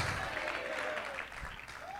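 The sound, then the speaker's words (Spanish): An audience applauds the Lord steadily, a dense wash of many hands clapping at an even level for the whole stretch, with faint voices mixed into the clapping. “Dale un aplauso fuerte al Señor. Él se merece un mejor aplauso.”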